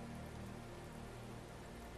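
rain falling

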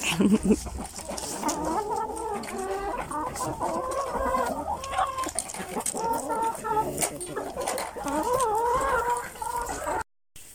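chickens clucking

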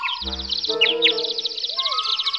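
bird singing

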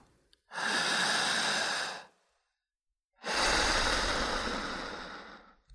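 slow

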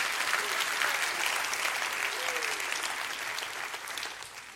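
audience clapping hands

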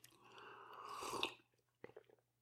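sipping hot coffee

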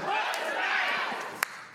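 audience shouting in response

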